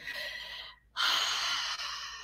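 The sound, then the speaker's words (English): A deep breath drawn in, a brief pause, then a long, audible exhale, breathy with no talking, as part of a guided relaxation exercise of 10 in-and-out breaths. “Step two is the breathing. So 10 breaths, and we're gonna do in and out.”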